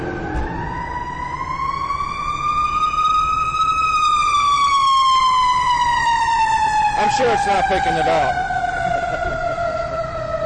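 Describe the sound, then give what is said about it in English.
A loud fire truck siren wails steadily, its long tone slowly rising then falling as it passes, with a brief spoken remark cutting in over it. “We're going to get a loud sound here, so I'll hold on and pause this podcast till the fire truck goes by.”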